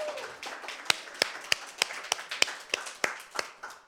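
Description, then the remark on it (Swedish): Steady, rhythmic applause from an audience, about a dozen sharp, crisp hand claps at an even moderate pace, with a soft wash of additional clapping underneath, and no voices. “Publiken, kan inte jag få en applåd?”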